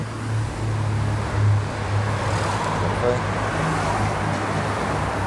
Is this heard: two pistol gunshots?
no